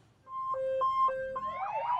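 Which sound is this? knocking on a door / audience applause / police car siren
police car siren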